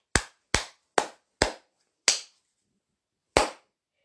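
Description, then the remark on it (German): Six sharp hand claps with no talking: four quick, evenly spaced claps, a fifth after a short gap, then a longer pause before one final clap. “Warum habe ich gerade geklatscht?”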